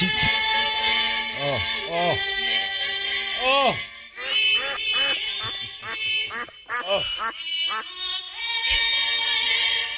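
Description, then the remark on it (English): A recording of children singing a string of wavering, drawn-out 'oh' notes in rising and falling swoops, loud and somewhat distorted, with brief gaps between phrases over a steady background hiss. “No, that's actually, just kids oh, okay. singing.”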